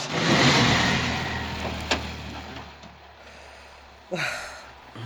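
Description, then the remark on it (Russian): A chauffeured car's engine rumbles steadily as it pulls away with passengers aboard, with a loud rush of noise at the start, a sharp click partway through and a brief surge near the end. “Анна Михайловна с трудом втиснулась на заднее сиденье, и машина тронулась.”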